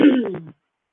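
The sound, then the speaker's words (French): A short voiced throat clearing from a person who keeps coughing, a low rumbling grunt broken into several quick pulses that fades out after about half a second, followed by silence. “Est-ce que la personne qui essaie de vouloir parler s'est mise à parler parce que j'arrête pas de tousser?”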